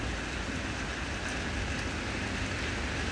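rain falling

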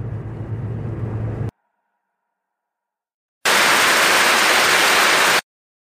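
car interior road noise

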